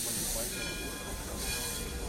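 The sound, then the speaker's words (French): A steady, loud hiss of steam escaping from the chimneys of three steam locomotives, L'Éléphant, La Flèche and the Stevenson, with a low rumbling underneath, continuous throughout, as they stand at the Allée Verte platform ready to depart for Malines (Mechelen) with the first passenger train. “Les moteurs ronflent. La vapeur s'échappe de leur cheminée.”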